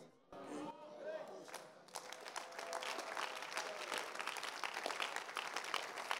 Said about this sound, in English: In fact, I see that those who are not married are clapping better than those who are married because they know they've done it.